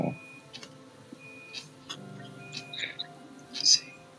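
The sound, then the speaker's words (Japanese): A washing machine's alert chime plays softly in the background, a few thin electronic tones over room noise and muffled voices, ending in a brighter, louder beep. “誰か洗濯機でも鳴ってる。”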